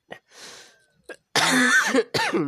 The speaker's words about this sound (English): Sorry, I don't know why I'm coughing so much. I have my medicine, but um, I think it's just kind of gotten worse as I gotten older.